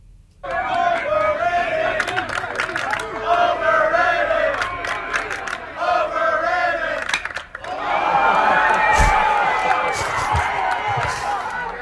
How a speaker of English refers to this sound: you can hear the crowd and what they are saying as the pitch is being delivered. Then you hear the impact of the ball